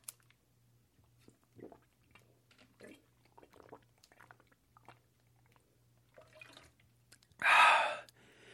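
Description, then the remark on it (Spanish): Sips and soft swallowing sounds, quiet and irregular, followed by a loud, breathy exhale of relief after drinking water. No one speaks. “Me duele la garganta a pesar de que he estado tomando agua. Voy a tomar agua.”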